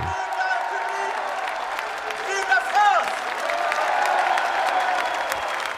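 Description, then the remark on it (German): A large crowd applauds steadily and loudly at the close of a political election campaign speech, with cheers and whoops rising above the clapping, a sustained ovation filling the whole stretch. “Großer Schlussapplaus, Jubel.”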